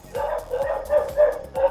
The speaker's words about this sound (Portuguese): Essa cachorrada não é aqui não.